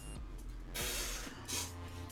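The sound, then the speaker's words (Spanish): A sneeze: a loud, breathy burst of noise followed by a shorter second puff, with a low steady hum underneath and no talking. “Salud.”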